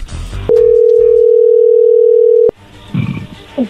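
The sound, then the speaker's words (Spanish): A steady, loud telephone dial tone as a phone call is being placed holds one unbroken mid-pitched note for about two seconds, then cuts off abruptly, followed by faint rustling and background noise. “se está marcando, no haga ruido.”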